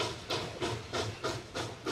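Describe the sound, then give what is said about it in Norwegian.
A steam train chugs steadily along, its hissy chuffs pulsing in a quick, even rhythm, about three bursts per second, with a low rumble of the rails underneath and no voices. “Jeg føler at toget kommer til å kjøre på meg. Drømmetoget kommer.”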